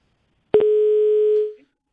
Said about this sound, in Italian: Ah, c'è una telefonata. Pronto?